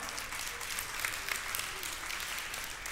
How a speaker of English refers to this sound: Yeah, you can applaud at that.